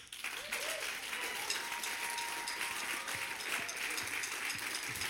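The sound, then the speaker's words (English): A crowd at a concert applauds steadily as the singers and band are introduced, a dense wash of many hands clapping at an even level throughout, with faint voices and a brief whistle-like tone mixed in. “Ja, give them a big applause.”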